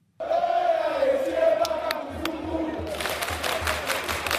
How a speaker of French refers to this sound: Des cris des fans de Mazembe pour saluer euh, le Rabbi Mohamed Ataya.